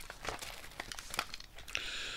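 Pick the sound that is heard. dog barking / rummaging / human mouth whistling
rummaging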